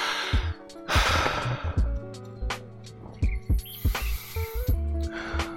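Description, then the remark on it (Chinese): A deep, airy breath drawn in through the nose outdoors in a sunny spot, a breathy hiss lasting under a second, followed by scattered clicks, snuffly sounds and a steady low hum in the background. “哎，我终于找到一个阳光明媚的地方坐了，让我深吸一口气。”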